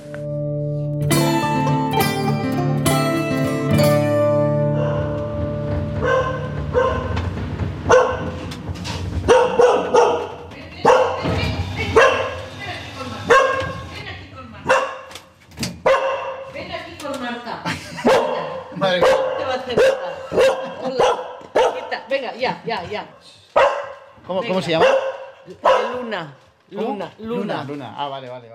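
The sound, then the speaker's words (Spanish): Luna, an affectionate female Spanish water dog, barks excitedly in a noisy welcome, a rapid, uneven run of loud barks and yips lasting about half a minute, with people's voices mixed in. “Tras la alborotada bienvenida que nos ha dispensado Luna, una cariñosa perra de agua”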